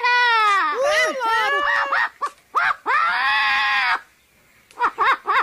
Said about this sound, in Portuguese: Jogando duro, ele mandou um papagaio aqui.